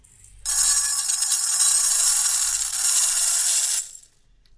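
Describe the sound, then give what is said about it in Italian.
A continuous metallic rattle of dry rice grains shaken inside a rice cooker pot, fairly loud, lasting about three seconds before stopping abruptly. No one speaks. “Adesso sentite il rumore del, del riso nella, nella um, mm, cuociriso, eh?”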